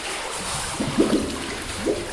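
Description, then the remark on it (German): Water sloshes and splashes in a few heavy surges as people wade through fairly deep water in a cave, over a steady wash of flowing water. No one speaks. “Es geht weiter, jetzt laufen wir immer noch so um die 100 Meter. Das Wasser ist schon ziemlich tief.”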